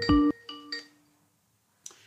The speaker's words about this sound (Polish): Niemcy do nas dzwonią, więc odbieramy.